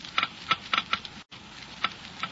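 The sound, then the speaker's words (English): A Geiger counter clicks slowly and irregularly, measuring the low wear rate of engine parts with new RPM motor oil, sharp dry ticks arriving a few per second at uneven intervals over a steady low hiss, with no voices. “First, let's listen to the Geiger counter slowly click off the low wear rate of new RPM.”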